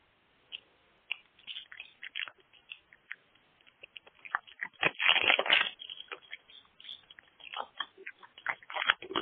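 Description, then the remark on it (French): Plastic crinkles and crackles irregularly as someone sits on a bag to crush it, with a louder, denser burst of crumpling midway before the scattered crackles continue. No one speaks. “Pour vrai, en s'assoyant dessus, peut-être que ça ferait péter le sac, puis quelque chose comme ça.”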